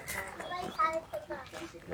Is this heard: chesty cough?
no